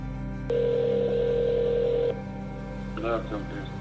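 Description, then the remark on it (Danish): A single long steady ringing tone of Navalny's telephone call to agents of the Russian intelligence service, lasting about a second and a half over a low background hum, followed by a brief voice speaking. “Her ringer han til de agenter i den russiske efterretningstjeneste, som han mener har forsøgt at likvidere ham.”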